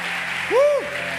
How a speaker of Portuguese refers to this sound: Alguém pode aplaudir o Senhor por causa disso?